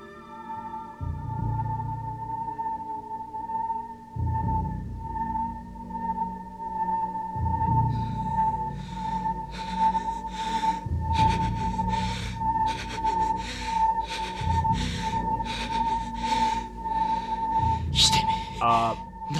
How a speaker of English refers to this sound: This is just when he's collapsed and he's just panting heavily and we just see the face.